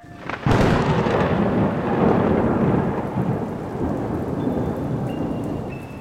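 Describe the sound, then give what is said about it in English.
A sudden loud crack of thunder breaks open into a long, deep rumble over steady pouring rain, a heavy storm at night on Halloween, with no voices. “I didn't think it was supposed to storm tonight.”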